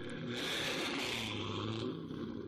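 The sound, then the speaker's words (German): A Chevrolet Camaro engine of up to 432 horsepower revs hard and accelerates, pulling out a loose tooth tied to the car with a string; a loud, steady roar with rising and falling pitch over a couple of seconds, with no one speaking. “Sein Vater bindet den lockeren Zahn mit einer Schnur an sein Chevrolet Camaro und gegen das bis zu 432 PS starke Auto hat auch der härteste Schneidezahn keine Chance.”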